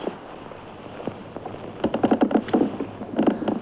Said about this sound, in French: Non, un autre extrait de Christian Jacques avec quelques grincements de, de, sommier.